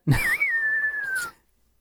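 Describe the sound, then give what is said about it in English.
A person whistles one sustained note that lifts briefly, then glides slowly downward for just over a second, fairly loud, with a breathy onset and no talking. “I can't whistle.”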